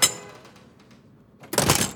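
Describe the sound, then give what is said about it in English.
The door of a New York City public library opens: a sharp click of the latch at first, a short quiet pause, then a louder burst of noise as the door swings open. No one speaks. “And I head on up the steps to the library. I open the door”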